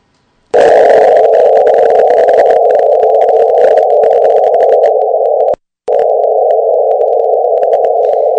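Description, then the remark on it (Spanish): A space-recorded wave signal rendered as sound: a loud, steady droning tone with a buzzy edge, holding for about five seconds, cutting out briefly, then resuming unchanged. No voices. “Ese es el sonido de la onda que se registran en el espacio.”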